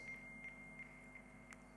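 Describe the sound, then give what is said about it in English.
A faint, high electronic tone with soft pulses repeating about every third of a second, a phone's text message notification beeping quietly. No one speaks. “Text message.”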